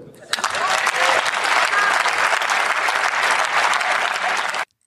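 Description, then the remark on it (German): Members of the German Bundestag erupt in rowdy shouting and jeering mixed with loud clapping, a dense, steady roar of many voices lasting several seconds before cutting off abruptly. “Gegröle im Bundestag, aber äh, kommen wir zu den ernsthafteren Debatten.”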